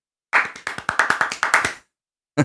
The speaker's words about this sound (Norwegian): Fordi da, når de prøver å klappe så fort de kan, så høres det ut som en applaus, så da pleier jeg å bukke og si ja. tusen takk.